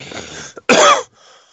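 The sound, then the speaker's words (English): A person fakes a cough for a character who falls down coughing and dies: a raspy, breathy lead-in followed by one loud, harsh hacking burst that cuts off abruptly, with no talking around it. “Hisoka falls down coughing and dies.”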